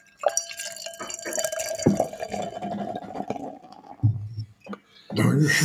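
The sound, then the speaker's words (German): Huppendorf beer, from a brewery near Bamberg, is poured into a second glass in one steady, fizzing stream with a faint rising tone for about four seconds, then a couple of short splashes and a louder rustling burst at the end. “So, und noch ein Glas.”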